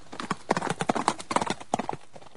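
A ridden horse gallops past in quick, clattering bursts of three and four beats, crisp, with a steady driving rhythm and no voices.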